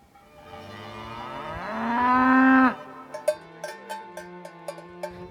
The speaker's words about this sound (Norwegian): Vi står i en lyng med kyr på alle kanter. De største har store horn med messingknapper.